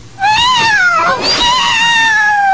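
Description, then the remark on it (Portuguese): A black female kitten meows loudly, a long, drawn-out plaintive cry that briefly breaks around the middle, then carries on and slowly falls in pitch. No one is talking. “o Zark salva uma gatinha preta que estava sendo maltratada por um grupo de garotos”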